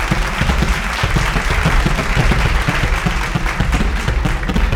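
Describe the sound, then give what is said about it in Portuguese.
Steady, dense applause sound effect, many hands clapping together, loud and continuous for the whole stretch without letting up. “Palmas. Fogo de artifício.”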